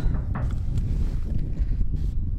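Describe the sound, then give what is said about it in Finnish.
Strong wind buffets the microphone outdoors on open plains, a steady low-pitched roar and rumble with gusty fluctuations throughout, loud, with no clear other sounds. “Huh, täällä tuuleekin aika lailla täällä lakeuksilla.”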